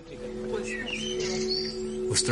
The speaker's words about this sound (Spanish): Papá está mirando a los pájaros. Mira, están cantando.